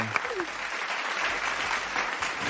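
A steady burst of clapping from a small group, dense and continuous for a couple of seconds at moderate volume, with a faint voice briefly mixed in.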